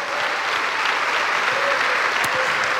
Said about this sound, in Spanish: Dale un aplauso a Cristo por eso, amado hermano.